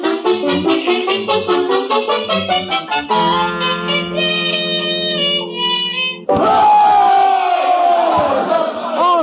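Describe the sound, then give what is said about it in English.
A loud rally crowd chants in a quick rhythmic cadence, shifts into long held shouts, then erupts into a dense roar of cheering and yelling. “ain't this some rally?”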